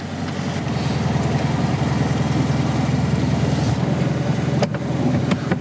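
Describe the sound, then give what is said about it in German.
The engine of a 1972 Fiat Cinquecento runs steadily with a low, rapid putter, loud and continuous, as the car is driven through a downpour to Berlin, with a couple of brief clunks near the end. No one speaks. “dieser Ausflug mit dem Cinquecento Jahrgang 1972, den fand ich am Ende eigentlich ganz passend zu unserem Thema über Politik und wie Politik in Realität funktioniert.”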